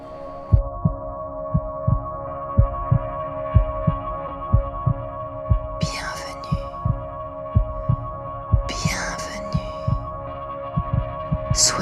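Electronic music with a steady, thudding low pulse like a heartbeat beneath a sustained droning hum, broken by a few bright, noisy swooshes. No voices.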